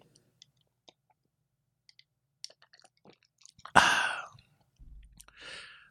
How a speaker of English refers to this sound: As I sip from my beverage.